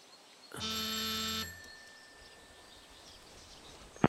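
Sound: doorbell ringing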